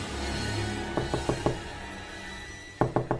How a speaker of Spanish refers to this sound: Alguien llamó a la puerta de su cuarto, se volvió indecisa, temía que fuese Úrsula. Insistieron.